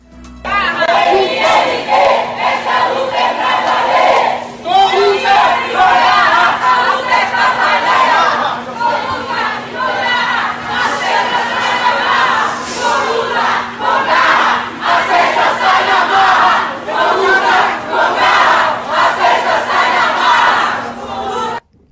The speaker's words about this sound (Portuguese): Então, é, são as invasões que estão ocorrendo em supermercados e como é, o que os amigos estão nos ouvindo, é, eles gritam, né, exigindo cestas básicas, gritando com luta, com garra, a cesta sai na marra.